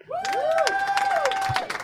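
A crowd applauds and cheers for an impersonation of Charles Lee, with dense clapping throughout and shrill whistles rising and falling over it, lively.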